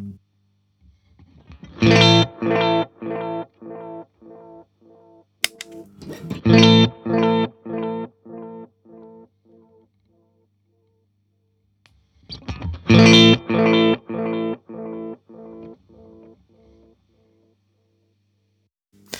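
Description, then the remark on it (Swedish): Distorted guitar phrases played through a tape delay pedal using its second tape head at the longest delay time, each burst followed by a train of decaying repeats, with two main attacks and echoes trailing off between them. “delayet här så slår vi på lite kompressor.”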